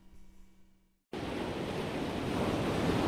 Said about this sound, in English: It's one of the most beautiful views of any campus in America, the Pacific Ocean crashing against the shores of UC Santa Barbara every morning, noon, and night.